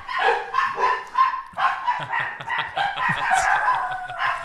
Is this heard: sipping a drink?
no